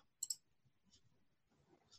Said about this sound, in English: And basically how we're going to start the game is by rolling the dice. So tell me when to stop.